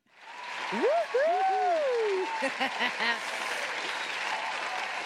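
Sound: applause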